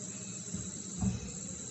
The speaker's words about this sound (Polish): tutaj już jest pora wieczorowa, już tutaj słychać chyba e, cykady w moim e, w tle, in a background. Cykady mi tutaj cyka, cykają, bo słońce już tutaj prawie zaszło za górami, za lasami.